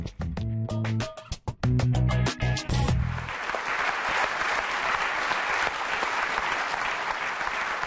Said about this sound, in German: Die Leute klatschen, das ist ja so das Brot.